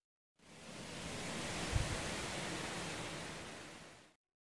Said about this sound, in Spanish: Bueno, era el sonido de un campo con árboles, porque ahora veremos los recursos naturales agrícolas.